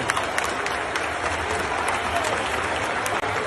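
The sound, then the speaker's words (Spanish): Steady, dense applause from a large crowd applauding the Millonarios football team after a win in Barranquilla, filling the whole clip, a continuous crackle of many hands clapping at once with no pauses, loud and even throughout. “Señoras y señores, están aplaudiendo al equipo.”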